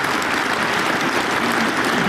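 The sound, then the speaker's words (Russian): Loud, dense applause from a large crowd at Vladimir Putin's meeting with his campaign proxies, steady and continuous throughout, with no voices standing out above the clapping. “Вот такими военными успехами 19 взятых домов пару дней назад под бурные аплодисменты хвастался Владимир Путин на встрече со своими доверенными лицами”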